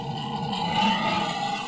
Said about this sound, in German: Schön war's mit den Schweinen. Kann ich die nochmal hören?